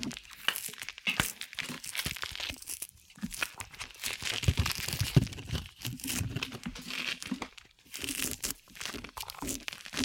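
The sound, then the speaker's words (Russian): ASMR-style peeling of tangerines: crisp, irregular tearing and crinkling bursts of peel with a few short pauses, fairly quiet and steady, with no one talking. “ASMR мандаринок”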